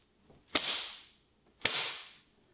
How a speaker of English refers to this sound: And there's another one of my favorites, the classic whip.